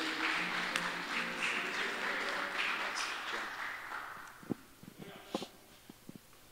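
A crowd applauds steadily for several seconds, the dense clapping gradually thinning out until only a few scattered claps and taps remain near the end.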